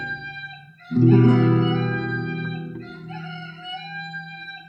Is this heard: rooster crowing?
yes